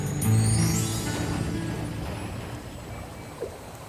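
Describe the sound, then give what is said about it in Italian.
Steady watery rush of a kayak moving along a river that flows out of a cavity in the rock, among limestone mountains, paddle strokes splashing over a constant flow of water, with a brief louder splash near the end. “Dai kayak scopriamo un'altra meravigliosa caratteristica di questo ambiente e anche di questo ci aveva parlato Arthur.”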